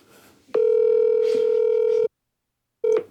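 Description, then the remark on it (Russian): A steady electronic ringback tone through a phone on speakerphone while calling someone: one long buzzing beep of about a second and a half, a pause of silence, then the next beep starting, with faint room noise before it. “Лишь бы он взял трубку.”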